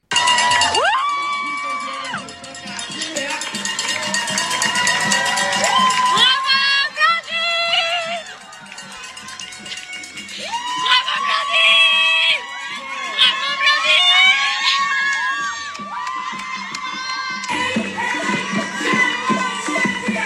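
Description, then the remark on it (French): A loud, dense crowd cheers and shouts continuously at the finish of an 80 km race in Chiang Mai, Thailand, as the winner arrives, with high-pitched whoops and screams rising and falling throughout, sustained excitement with scattered voices calling out amid the roar. “On écoute tout de suite l'arrivée de Blandine en Thaïlande, à Chiang Mai, dans une ambiance de folie”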